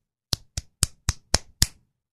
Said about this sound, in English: I was slapping my hand.